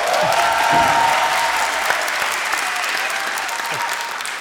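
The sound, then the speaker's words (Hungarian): Steady applause from a group fills the whole stretch, many hands clapping densely at a constant loud level, with a faint murmur of voices underneath. “Ha már ti nem tapsoltok!”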